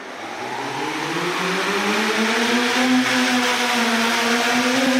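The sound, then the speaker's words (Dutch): A drone carrying a box of medicine flies along a corridor toward a room in a university test centre, its motors whining in a steady, buzzing hum that rises slightly in pitch, then holds loud for several seconds with no voices. “En dan vliegt hij nu door de gang naar een kamer toe.”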